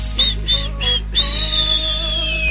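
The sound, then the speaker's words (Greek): Several short whistled notes in quick succession, then one long sustained whistle gliding slowly downward, clear over a steady low hum. “Εδώ σφυρίζουν τα παιδιά.”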